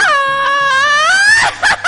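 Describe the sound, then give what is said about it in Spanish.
A loud mariachi-style grito from a single voice: a long, high, rising wail that breaks into a couple of short, yelping laugh-like bursts at the end, unaccompanied. “¡Ay! ¡De mariachi!”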